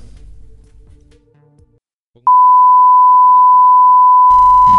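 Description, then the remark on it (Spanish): A loud, steady electronic beep cuts in abruptly about halfway through and holds unbroken to the end, while people talk before it starts and keep talking underneath it. “Eh, y es que eh, Acaba de sonar el pitido, eh, creo.”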